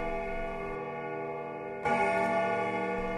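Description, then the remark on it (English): A clock strikes the hour, having just struck thirteen, with a resonant, sustained bell tone, then strikes again sharply partway through, the new stroke layering over the lingering hum. Loud, with no voices. “The clock has just struck thirteen.”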